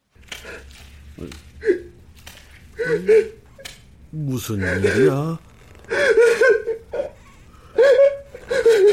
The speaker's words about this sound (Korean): 아이고. 내 평생 사내가 저렇게 슬프게 우는 건 처음 들어보네.